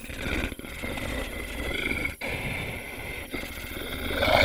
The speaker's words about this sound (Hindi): जो किसी जानवर के गुर्राने की आवाज थी मैं उस आवाज को ध्यान लगाकर सुन ही रहा था कि तभी मुझे एहसास हुआ कि वो आवाज मेरे पीछे से ही आ रही है और धीरे धीरे बढ़ती जा रही है मैं जैसे ही पीछे पलटा तो मेरे होश उड़ गए मेरे पीछे एक भेड़िया था